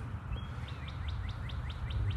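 A bird repeats a quick, bright chirp in a steady series of about eight calls in a big field in a park, over a constant low rumble of outdoor background noise as traffic rolls up and down a highway beyond the field.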